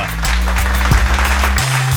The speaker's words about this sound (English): A big round of applause for her.